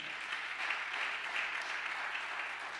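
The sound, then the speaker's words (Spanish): A crowd claps loudly and steadily, giving a loud applause to the Lord, a dense, sustained wash of many hands applauding together throughout, with no voices standing out. “Dándole un aplauso fuerte al Señor.”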